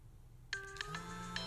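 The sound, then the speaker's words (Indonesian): After a quiet moment, a phone ringtone starts up with a quick series of bright, chiming melodic notes that ring on and sustain, clear, with no one talking. “Duh, cocok telepon lagi. Proyek nih pasti.”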